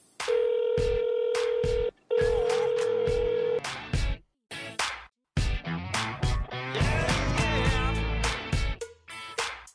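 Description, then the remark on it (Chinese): A steady telephone ringing tone sounds in two long bursts as a call is placed to the show 华大吐槽君 (Huada Tucao Jun), followed by a cluttered stretch of short beeps and electronic chirps that fades into a rising jingle. “行行行，帮我呼叫华大吐槽君。 正在呼叫华大吐槽君。”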